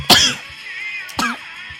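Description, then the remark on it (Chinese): Two sharp, breathy sneeze-like bursts about a second apart, the first louder and longer, each a sudden explosive rush of air followed by quiet, with no talking. “不好意思打个喷嚏”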